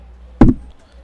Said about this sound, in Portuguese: Olha as palmas saindo aqui.